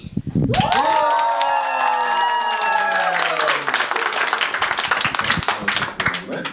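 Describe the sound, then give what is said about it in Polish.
A live comedy audience at Resort Komedii bursts into loud, sustained applause with dense clapping, while whoops and cheers ring out over it during the first few seconds, then the clapping carries on steadily. “I żeby to Państwu teraz udowodnić, wszystkim, którzy nas słuchają, chciałbym, żeby publiczność w resorcie komedii dała o sobie znać.”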